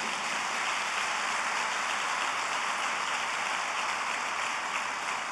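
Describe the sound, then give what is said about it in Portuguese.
Sustained applause from a crowd applauding for Jesus: a dense, steady wash of many hands clapping at once, loud and even throughout, with no voices over it. “Se é para Jesus, você pode aplaudir.”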